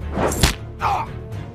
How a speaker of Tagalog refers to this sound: Muling sinuntok sa mukha ni Seryo si Fernando.